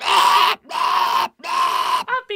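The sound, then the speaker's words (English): A voice mimics baby birds with three loud, harsh squawks of about half a second each, evenly spaced, then a quick higher chirping flourish at the end. “Yeah, wait, wait till they have the babies. All you're gonna hear all day is”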